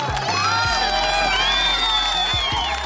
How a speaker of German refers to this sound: In Zukunft, verkündet Josie, gibt es jeden Sonntag Schokopudding. Alle jubeln.